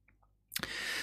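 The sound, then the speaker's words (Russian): A couple of faint ticks, then a few sharp crackling clicks that give way to a steady hiss of microphone noise for the rest of the moment; no one speaks. “Щелчки в микрофон появились какие-то.”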